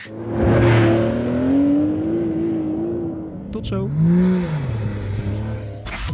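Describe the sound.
A Porsche 911 Dakar's engine revs loudly during a test drive in the desert in Morocco, its pitch climbing and falling in long sweeps, then surging again. A voice briefly speaks over the steady engine drone.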